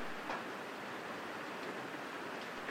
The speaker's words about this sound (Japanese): 土曜日、午前9時。昨日から降り続く雨と、どんよりした曇り空。